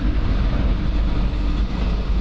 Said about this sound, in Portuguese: Ai, comboio a passar. Já estou numa linha de comboio.